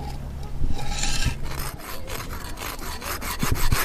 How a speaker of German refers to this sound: Der Stein nennt sich Uto und der ist sehr weich und nicht so hart, damit man schöne Formen draus machen kann. Ich habe mir jetzt eine Feile genommen, mit der ich an dem Stein schleifen kann.